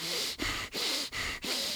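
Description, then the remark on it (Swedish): Someone demonstrates quick, forceful breathing through the nose: four rapid, rhythmic huffs in a row, fairly loud, with no talking. “Så då hade jag sagt så här, nu ska jag inte andas genom munnen, nu ska jag bara testa att andas genom näsan för annars blir jag för torr.”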